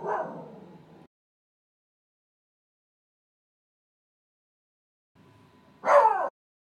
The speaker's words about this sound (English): All right, sorry about that. My dog is barking up a storm.